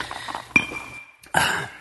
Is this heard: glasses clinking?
yes